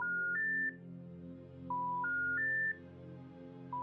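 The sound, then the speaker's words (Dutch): A series of electronic telephone tones, each a steady beep held at a different pitch, plays in short groups with brief pauses, over a faint low hum, as a woman dials phone numbers of former tenants. No one speaks. “Van een aantal hebben een telefoonnummer. Op goed geluk doet ze er een paar in.”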